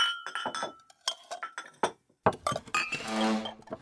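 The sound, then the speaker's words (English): Plates and silverware clink and clatter as a family sets the table, in a busy, uneven run of sharp taps, with a brief pause midway before a denser burst of rattling. No one speaks. “grab silverware for everyone, please. Let's go to the table.”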